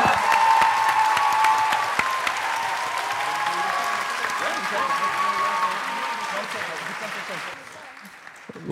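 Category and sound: crowd, audience applause and cheering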